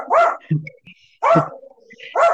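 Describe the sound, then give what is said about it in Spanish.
A pet dog barks three times in a steady rhythm, loud, each bark sharp and bright, with short gaps between them. “Hasta, el perro te responde.”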